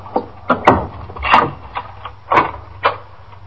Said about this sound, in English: Oh, well, just a second. I'll take the chain off the door.